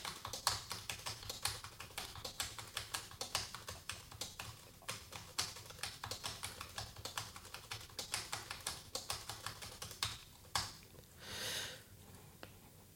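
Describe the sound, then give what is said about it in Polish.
Steady typing on the keyboard of a Braille Edge braille display, rapid clicky keystrokes in irregular bursts, fairly crisp, ending with a brief soft swish near the end. No voices. “To teraz jeszcze może klawiatura. Spróbuję coś popisać.”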